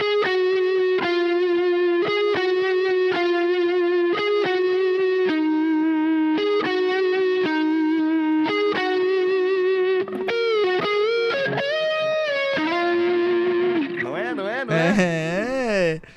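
A distorted electric guitar, played through a preset the player made, plays a solo, starting with a quick run of repeated picked notes, then moving into slides and bends that end in a wide, wavering vibrato. Loud and steady throughout.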